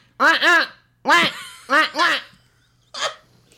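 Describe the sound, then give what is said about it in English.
A person imitates a mallard duck, a Peckham Rye mallard, giving a handful of loud, nasal quacks, mostly in quick pairs, ending with a shorter, breathier quack after a pause. “Listen, my duck impression is really good.”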